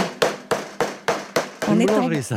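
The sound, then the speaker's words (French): Five loud, regular thuds, like dough being slapped or pounded on a work surface, roughly every half second, in a bakery in Douarnenez, Finistère, Brittany, France, during the making of kouign-amann butter cake, followed by a person's voice speaking. “Alors, où est-ce que vous nous emmenez ce soir Eh bien, dans une boulangerie, écoutez”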